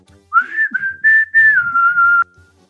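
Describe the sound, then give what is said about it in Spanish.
Someone whistles a short melodic phrase, clear and fairly loud, with sustained notes and gentle pitch glides lasting about two seconds, with no talking. “Y dice uno, mira esta tú, qué chifladora amaneció.”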